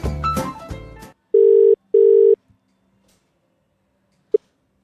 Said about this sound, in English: Ring, ring, ring, ring, ring, ring, ring, banana phone.